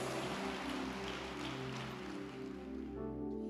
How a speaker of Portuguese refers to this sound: Nada pode contra aquele que é protegido do Senhor. Pode dar uma salva de palmas para o Senhor, Jesus.